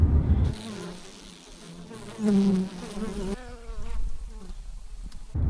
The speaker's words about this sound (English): And some bees